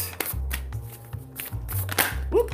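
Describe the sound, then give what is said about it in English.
Riffling and shuffling of a deck of animal oracle cards, with quick papery bursts and a sharp pop as a card slips free near the end, over a low steady hum. “You hear it popping.”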